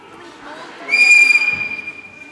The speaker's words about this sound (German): da sind sie fast still, wenn Pfarrer … pfeift